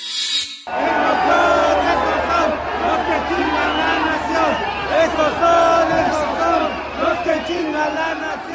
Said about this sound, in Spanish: vi cuando le mandaron a manifestantes para vitorearla al terminar una reunión con estudiantes en Estados Unidos.